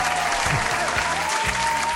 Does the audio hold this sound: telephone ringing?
no